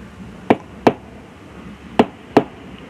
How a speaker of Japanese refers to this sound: 心臓が飛び跳ねたそれは玄関をノックしてきた絶対猫じゃない